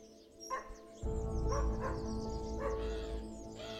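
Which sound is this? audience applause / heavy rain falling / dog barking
dog barking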